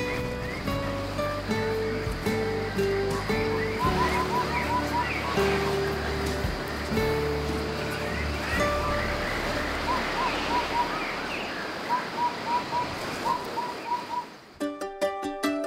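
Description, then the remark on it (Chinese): A lively morning forest chorus of animals waking at sunrise in Kenting, Taiwan: layered chirps and repeated short whistled notes over a steady, dense hiss of background sound, continuing throughout before cutting off near the end. “在这里也让大家享受这一段来自垦丁早晨动物们的声音。”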